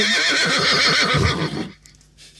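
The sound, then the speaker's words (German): A horse lets out a loud whinny lasting over a second, its pitch wavering up and down before cutting off into near silence with a few faint clicks. “Ich glaube, mein Pferd äh, hat, hat noch Durst.”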